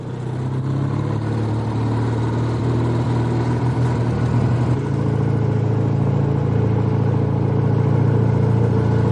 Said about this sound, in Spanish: Ella sube a la moto y circulan por las calles de la ciudad.